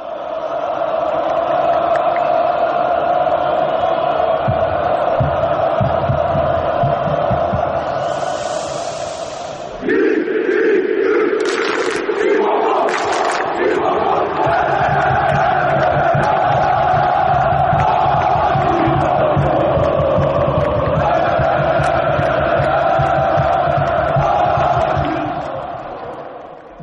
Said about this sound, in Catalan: anem a escoltar l'ambient de, del camp del Galatasaray animat per Wesley Snyder